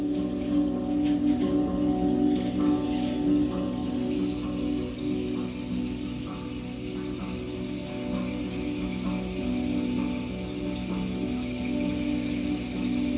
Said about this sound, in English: hear that water? That's that cry.